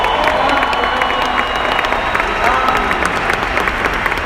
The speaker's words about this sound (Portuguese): Uma salva de palmas para o meu patrocinador.